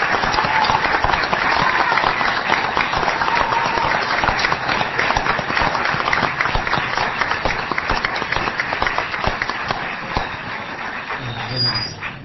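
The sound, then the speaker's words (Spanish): A crowd applauds steadily for about twelve seconds, dense overlapping claps at a fairly even loudness, tapering off slightly at the very end. The audience is applauding the liceo (secondary school) on its 80th anniversary, during a radio broadcast. “Bueno, para que, mm, para que la audiencia, para que los que están del otro lado del receptor se enteren de cuánta gente de acá, ¿por qué no aplaudimos al liceo en sus 80 años?”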